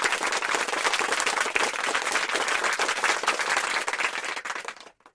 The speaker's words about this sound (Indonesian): Puncak acara pun tiba, yaitu hari diadakannya lomba final. Di stek terdengar suara tepuk tangan yang meriah dari penonton lomba tersebut.